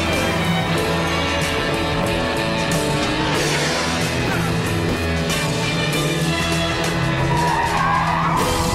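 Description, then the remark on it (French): Tires squeal and skid repeatedly as cars race through a chase in the Grand Theft Auto 5 trailer by Rockstar Games, engines roaring loudly and continuously in the foreground with dense, chaotic motion throughout. “On a des poursuites de voitures, des hélicos dans les airs des voitures qui brûlent, des avions et le titre.”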